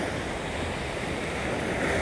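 A steady, loud wash of ocean surf breaking on a beach shore with clear turquoise water, a broad hissing roar of waves with some wind, with no voices.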